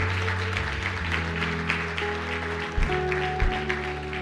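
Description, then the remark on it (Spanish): An audience applauds for the Lord during a church service, a dense, continuous patter of many hands clapping, while sustained organ or keyboard tones hum underneath throughout. “Dale un aplauso al Señor, dale un aplauso al Señor.”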